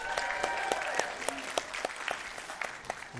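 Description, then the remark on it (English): An audience applauds the children's choir with steady, dense clapping from many hands, sharp claps standing out in a continuous patter, while faint cheering voices rise underneath throughout. “Let's hear it again for ….”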